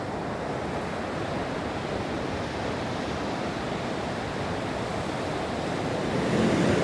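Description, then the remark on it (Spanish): Ocean waves break on the shore at Puerto Vallarta in a continuous, fairly loud wash of surf, with a slight swell in volume near the end. No voices are present. “Y entonces, una amiga me invitó a Vallarta al mar.”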